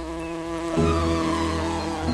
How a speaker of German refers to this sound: Die Hummel ist zu schwer für die Fläche ihrer Flügel. Nach den Gesetzen der Aerodynamik dürfte sie nicht fliegen können. Die Hummel weiß das aber nicht und fliegt einfach trotzdem.